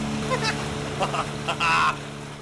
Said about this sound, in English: Hard to hear what they're saying over the sound of that outboard engine, but laughing it up the whole time.